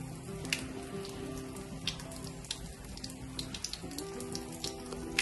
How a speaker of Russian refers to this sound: Ну вот видите, вот она течет вода. И как здесь иногда, наверное, бывает приятно в жаркий летний день подойти и просто попить воды. Бесплатно.